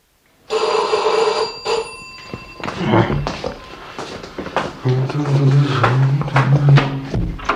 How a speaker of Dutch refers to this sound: Hey eh, je hoeft het nodig om zo lang te bellen.